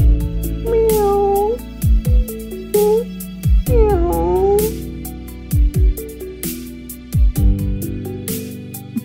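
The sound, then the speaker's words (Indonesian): A cat meows several times at a small food stall, drawn-out and wavering, over rhythmic background music with steady percussive beats; the meows are clear. “setiap hari itu jatah mesti jatah buat kucing-kucing yang masuk ke warung ini yo raketang tempe roti mawar tak cuel-cuel ya”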